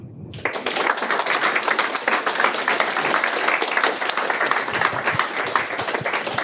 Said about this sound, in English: yeah, if we could just have one more big round of applause for the five speakers. Thank you all very much.